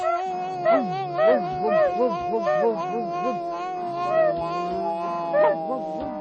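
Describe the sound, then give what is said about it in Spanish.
Several dogs howl and yelp together in a steady, overlapping chorus, their wavering cries rising and falling in short repeated arcs, moderately loud throughout. “La noche en que Wilbur nació, pudo oírse un grito espantoso que retumbó incluso por encima de los ruidos de la montaña y de los ladridos de los perros.”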